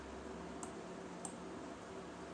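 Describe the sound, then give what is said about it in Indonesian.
Two crisp computer mouse clicks, about half a second apart, over a steady background hiss, with no one speaking. “kalau ada suara klik-klik ini mouse ya gitu”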